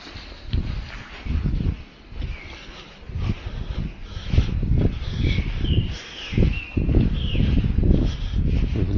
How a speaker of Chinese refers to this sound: 有鸟叫